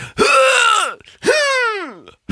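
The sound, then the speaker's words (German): A voice imitates a tennis player's grunting scream twice: two loud, strained cries, each under a second long, sliding downward in pitch, with a brief pause between them. “Ich glaube, ich glaub, deswegen schreien die auch immer so beim Tennis spielen.”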